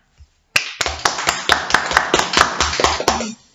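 An audience bursts into loud, sustained applause for two women being introduced, many hands clapping together with sharp repeated smacks for a few seconds before trailing off.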